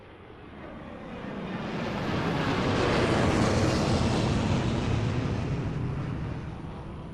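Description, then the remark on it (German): A broad, roaring aircraft engine rumble swells gradually to a peak midway and then eases slightly, a steady dense wash of noise with no voices present. “Zum ersten Mal in meinem Leben stieg ich in ein Flugzeug.”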